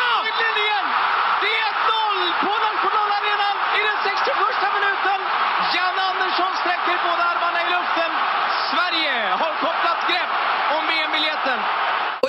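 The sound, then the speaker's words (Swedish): A stadium crowd of about 50,000 roars after Sweden scores 1-0 against Italy in a World Cup qualifier, a loud, dense wall of cheering and shouting that stays steady throughout, with an excited voice calling out over it. “Vi var ju några stycken, vi var 50, styck, 50 000 till som skrek där bak.”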